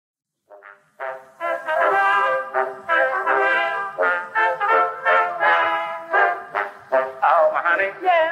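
A lively ragtime tune plays, with bright horn-like melody lines moving in short bouncy phrases at a steady, fairly loud level, with no talking over it.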